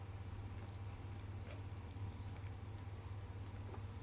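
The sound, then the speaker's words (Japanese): Quiet chewing of cold chicken nanban, with a few soft, moist bites and squishes over a steady low background hum. No one speaks. “冷たいまま食べるチキン南蛮いただきます”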